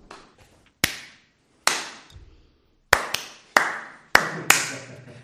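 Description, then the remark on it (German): A handful of sharp hand claps at an uneven pace, starting sparse and bunching together toward the end, with no one speaking. “da kann man auch mal applaudieren, kurz.”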